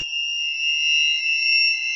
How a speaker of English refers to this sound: It's tinnitus. A constant ringing in your ear caused by loud machines.